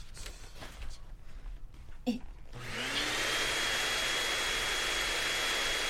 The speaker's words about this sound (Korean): 에이, 아, 청소기가.